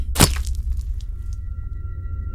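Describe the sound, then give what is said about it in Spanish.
A single sharp, heavy crack of a hammer blow striking the back of a head from behind, loud and abrupt, followed by a low rumbling hum and a faint steady tone with no talking. “Cuando el criminal lo invitó a pasar para que platicaron un poco, este lo golpeó por detrás de la cabeza con un martillo”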